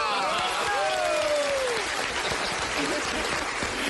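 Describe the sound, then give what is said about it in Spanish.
Steady, dense applause from an audience welcoming guest Tulio Zuluaga to the show Bla Bla Blue for the whole stretch, with rising and falling whistles or cheers sounding over the clapping early on. “Recibamos con un fuerte aplauso al máster de máster de todos, al señor Tulio Zuluaga.”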